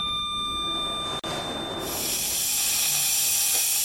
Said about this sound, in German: Hurra, eine Kaffeemaschine.